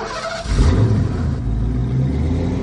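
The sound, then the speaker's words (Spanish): A car engine turns over and catches, then revs up into a deep, steady rumble as the car drives off, holding loud through the rest of the moment, with no voices. “Se van en el coche.”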